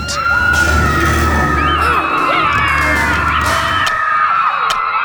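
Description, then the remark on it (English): A loud, chaotic crowd of about 200 children in a camp dining hall, shouting and shrieking all at once during a food fight as they throw food; high-pitched yells and whoops layered over a dense roar, plus a few scattered bangs. “200 kids picked up the food on their plates and started to throw it.”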